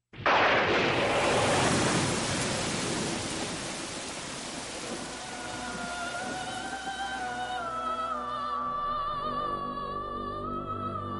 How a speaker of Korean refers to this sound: 그날 밤 폭우가 내리고 천둥이 치면서 별장에 있던 세 사람은 알 수 없는 불안감에 사로잡힙니다.